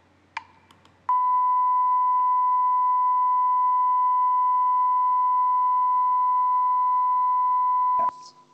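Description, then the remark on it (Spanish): A single long censor beep, a steady, loud pure tone that holds unbroken for about seven seconds, with brief muffled noise just before it starts and right after it cuts off. “Pitido.”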